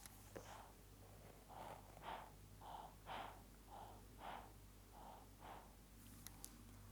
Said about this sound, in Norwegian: Og en observant lytter med god hørsel vil kanskje høre at det har vært en del pustelyder mens du har prata spesielt. Det er ikke lydkunst, da. Det er et, eh, eh det er pust fra en ny, litt liten person som ligger på magen din, som høres sånn her ut.